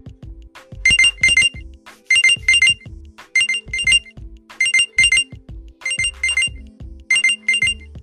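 A loud electronic watch-locator alarm, set off to find a watch, rings in repeated bursts of rapid high beeps, pausing briefly between groups, with a low rumbling hum underneath and no one speaking.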